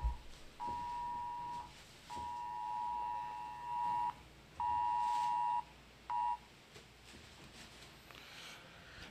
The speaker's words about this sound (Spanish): Perdón, era una alarma Amber. son alarmas que se ponen en los celulares americanos que dan una advertencia de si se robaron un niño o algo así.